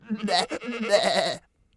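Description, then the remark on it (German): A human voice imitates a goat's bleat, giving a drawn-out, wavering 'baa' with a shaky tremolo, fairly loud, lasting about a second and a half before cutting off into silence. “Aber als der Vater zu Hause im Stall die Ziege fragte, ob sie satt geworden sei, antwortete sie ihm Wovon soll ich satt sein? Bäh.”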